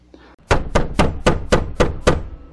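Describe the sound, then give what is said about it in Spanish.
A fist bangs hard on a house's main front door, seven heavy evenly spaced thuds in quick succession, loud, each blow booming with a deep resonant knock. “Una mano golpeaba con fuerza la entrada principal.”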